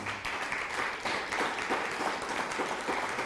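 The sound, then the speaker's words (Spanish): A crowd applauds steadily, many hands clapping in a dense, continuous patter at moderate loudness, with no voices standing out; the applause is given for the people in Germany. “Ya le hubiera dado usted un aplauso a la gente que está en Alemania.”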